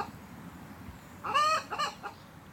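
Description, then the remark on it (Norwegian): A few sharp, excited clucks and squawks from hens startled in a neighbour's henhouse burst out over a low background murmur, in two quick clusters before fading. “Og neste dag så finner de han spankulerende rundt hønsehuset til naboen, der han skremmer hønsene med den nysgjerrige snuten sin.”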